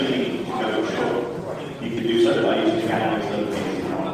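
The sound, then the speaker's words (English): A loudspeaker announcement by the cruise director on a cruise ship at Curaçao, at 8 o'clock as passengers are about to disembark, plays steadily in the background, a muffled, amplified voice talking continuously with a slight echo, its words indistinct. “At the special time of 8 o'clock, and it's just the time for a loud announcement from the cruise director.”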